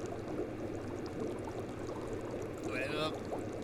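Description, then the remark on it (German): Steady bubbling and churning of jacuzzi water fills the whole stretch, a dense rushing froth with a brief tonal voice-like sound near the end. “das ist ja ein bisschen blubbern.”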